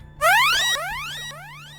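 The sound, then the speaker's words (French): A synthetic dolphin echolocation call from the video game Echo the Dolphin, used to locate oneself on the map: three quick rising, ringing chirps in a row, the first loudest, over a steady low electronic hum with no talking. “On remarquera que le dauphin ne s'appelait pas Echo pour rien et on se souviendra du bruit caractéristique de son cri.”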